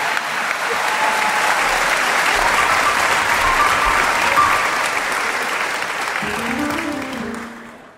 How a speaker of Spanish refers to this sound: Lo felicito. un aplauso para